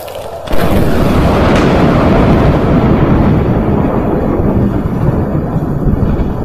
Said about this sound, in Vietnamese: Một tiếng sấm nổ vang trời Tia sét sáng loà xuyên dọc bầu trời đêm Khiến cho tất cả phải dùng mình